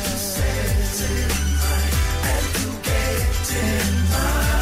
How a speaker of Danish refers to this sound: Nummer 4 i øh, den store tv-kendingsmelodi-quiz, øh, den lyder sådan her.